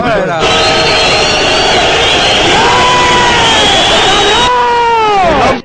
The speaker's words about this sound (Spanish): Pues ponme silbidos